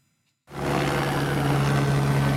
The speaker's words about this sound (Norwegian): Helikopteret kommer med en hvit sekk på 1000 kg med kalkstensgrus. Rotoren lager så mye vind at det er vanskelig å holde balansen? Ja, det er 66 eh, tonn som fordeles nå på eh, fire kjente gyteplasser som vi har her oppe.